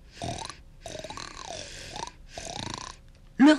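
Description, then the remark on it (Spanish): Three rough, throaty pig grunts, fairly loud, the middle one long and drawn out, ending with a sudden louder burst of sound. “Después se levantó por el cerdo.”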